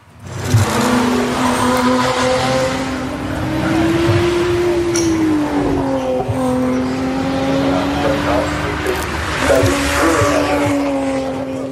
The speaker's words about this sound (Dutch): Klinkt niet verkeerd, maar welk is het nou? Dit is niet de viercilinder, dit is volgens mij de V6 dan.